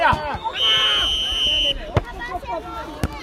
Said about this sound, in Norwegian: Det her er lyden av en fotballkamp.